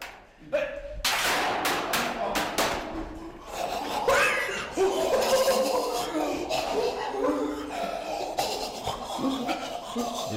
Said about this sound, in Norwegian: Det der var lyden av hvordan vi her i teknisk seksjon Radio Revolt løser tekniske problemer. Vi, det første vi går tyr til, er ofte fysisk vold, og kaste ting i bakken.